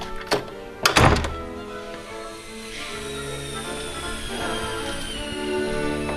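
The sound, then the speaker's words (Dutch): A heavy warehouse door, opened by people and then swinging shut again on its own, thuds closed: a small knock, then a loud, deep thump, followed by a steady mechanical hum with a faint high whine and no voices. “En vandaar dat de mensen even de deur op moeten doen. En die gaat gewoon weer dicht.”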